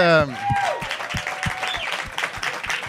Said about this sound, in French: on, va, l'accueillir, donner un maximum d'amour, commencer à applaudir tout de suite.